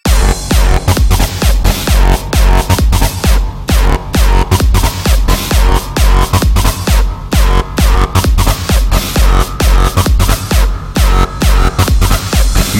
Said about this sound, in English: Okay, now we need some fat distortion. More distortion. I said more distortion. Time for another fat ass drop.